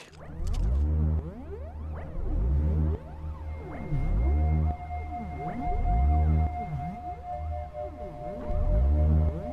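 An ambient electronic track made with Biosonic MIDI Technology, released on vinyl via Sacred Bones: swelling, whale-like tones that glide up and down in repeating waves over a steady low drone, with a thin sustained high note emerging midway. No one speaks.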